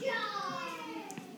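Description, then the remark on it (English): Young girls' voices chatter in the background in a house, a continuous stretch of high-pitched talking with no other sounds standing out. “You can hear the girls talking in the background.”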